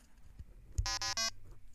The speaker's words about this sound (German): Ähm, da ist der Ein- und Ausschalter. Und ich will nur gucken, ob es ein Geräusch. Oh, es macht ein Begrüßungsgeräusch! Warte mal. Ich hoffe, man kann das hören.